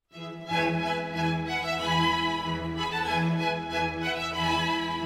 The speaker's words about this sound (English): All of the musicians are sitting in a semicircle facing the conductor who's leading the song. Sitting in the front row are the musicians playing instruments with bows. They sound like this.